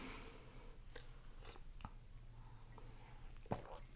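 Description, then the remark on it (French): Quiet mouth sounds of someone taking a small sip of tea, with soft wet clicks and a gentle swallow scattered over a few seconds, no talking. “Donc, prendre une petite gorgée de thé,”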